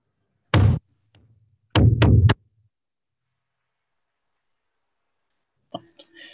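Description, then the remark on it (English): Loud knocks on a door, made carefully and slowly in a rhythmic pattern: a single heavy knock, a short pause, then three quick knocks in a row, followed by silence and a faint, brief sound near the end. “And I'm going to step up to the door and I'm going to very carefully and very slowly”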